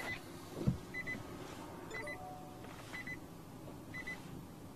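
An electric car's start-button chime as the brake is pressed and the start button pushed: soft, high electronic beeps repeating about once a second, five in all, over a low steady interior hum, with a brief dull thump early on.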